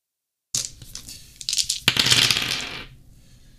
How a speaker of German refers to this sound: So, die Würfel sind gefallen. Ihr habt es gehört. Ich werde sie kurz hier sortieren in eine beliebige Reihenfolge.